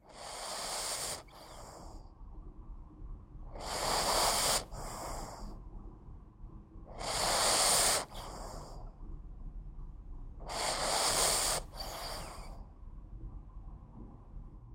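A sleeping Boston terrier puppy breathes noisily, with four rhythmic snorting inhales spaced about every three to four seconds, each followed by a softer breathy exhale. No one speaks.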